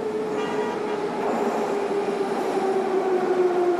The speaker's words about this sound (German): Geschäftig ist Taschkent auf, aber auch unter der Erde. Alle paar Minuten fährt ein Zug in eine Station ein. Die Taschkenter U-Bahn ist eine Wohltat.